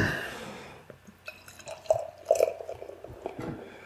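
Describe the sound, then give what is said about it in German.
A light Hefeweizen wheat beer is poured into a glass, not filled completely: a continuous gurgling splash with dripping, bubbly bursts rising and falling over a few seconds, no voices. “Was natürlich jetzt ein bisschen kritisch wird, weil wir ähm, wir müssen nicht ganz einschenken.”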